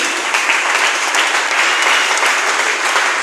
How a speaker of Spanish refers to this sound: Ahora denle un aplauso, al Señor, fuerte, ¿no? Merece la gloria.